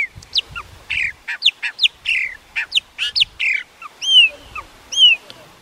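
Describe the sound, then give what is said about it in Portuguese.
A chopi blackbird sings a lively, varied song of rapid whistled notes and sharp upslurred calls, with clear ringing phrases near the end, loud with no talking. “E a terceira enquete tinha três concorrentes: o pássaro preto,”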